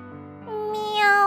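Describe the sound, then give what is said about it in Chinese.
A single drawn-out meow from a little wild cat, starting low and rising to a higher, louder, pleading wail toward the end, heard on its own with no talking. “小野猫跑来了，流着泪哀求着”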